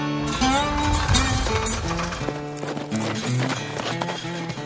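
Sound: horse hooves approaching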